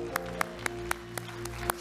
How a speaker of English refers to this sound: And that's why I'd like for you just take a moment right now and let's testify with a clapping of our hands. Clap your hands, all ye people.